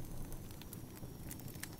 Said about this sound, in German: Ich bin hier mit meinem Lagerfeuer am Start und habe ein paar Sachen rausgehauen, die mir auf dem Herzen lagen.